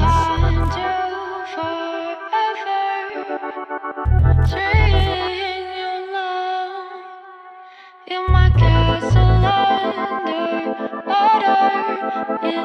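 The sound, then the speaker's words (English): A recorded song with vocals plays loudly, layered with heavily effected, chorus-like synth tones and deep bass thumps; it thins out briefly before surging back in full. “let's listen to some good music. Let's that listen to some, to some singers at their craft.”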